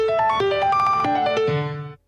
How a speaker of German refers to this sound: Okay, das ist ein äh, Stimmt, Handy Handyklingelton, Nokia, okay. Nokia.